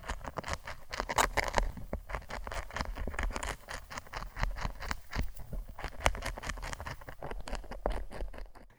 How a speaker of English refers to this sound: So these signals are actual audio recordings that sound like the chewing caterpillar and make the plant physically vibrate. It sounds like this.